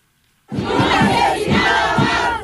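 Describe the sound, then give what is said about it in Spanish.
Dozens of activists in Mexico, colleagues of the murdered lawyer Cecilia Monzón, chant loudly at a protest, voices rising together in a steady rhythmic beat after a brief moment of silence, sustained and energetic throughout. “Es el reclamo de decenas de activistas, compañeras de la abogada Cecilia Monzón, quien fue asesinada a balazos por sicarios que la venían siguiendo y perpetraron el crimen.”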